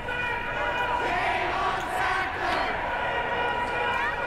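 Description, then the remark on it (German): A loud crowd of protesters shouts and chants together in a large, echoing temple hall of a museum, a dense, continuous roar of many people with overlapping cries throughout, as hundreds of pill bottles are thrown into the pool around the temple. “Plötzlich wird es laut in der Tempelhalle.”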